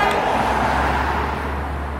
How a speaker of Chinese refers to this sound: 现在我们在天府广场正在录制，可以看见车流非常的拥堵啊，公交车、自行车、摩托车，然后 taxi，还有各种各样的交通设备混搭在一起的声音，还有人过马路的步行。